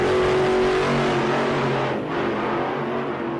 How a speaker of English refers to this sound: Uh, I mean, the sound is clearly a dragster starting on the quarter mile, so it's about getting the horsepower on the track.